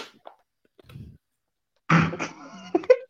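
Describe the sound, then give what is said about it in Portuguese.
A person coughs hard after choking, a loud, strained, raspy burst followed by a couple of shorter hacking coughs, preceded by a faint low rumble. “eu acabei de engasgar”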